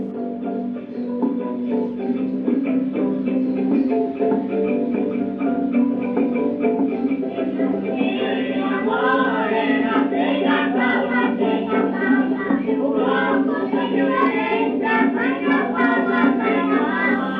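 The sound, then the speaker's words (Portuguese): An old, muffled early samba recording with a plucked viola picking out a busy melody with a regional accent over steady accompaniment, playing continuously at a moderate, even level with no voices. “Uma coisa que a gente nota aí é o ponteado da viola, e você tem uma certa, um certo sotaque regional, aí, um certo Sim.”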